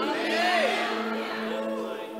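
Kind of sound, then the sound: crowd, audience shouting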